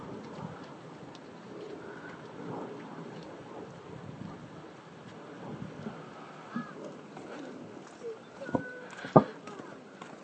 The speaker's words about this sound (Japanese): 歩きながらですねあ飛行機の飛んでいく音が